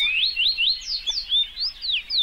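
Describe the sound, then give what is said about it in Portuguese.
Birds singing in a quick, steady run of high, whistled chirps that sweep up and down, repeating without pause and with no voices. “Então tem canto de pássaros.”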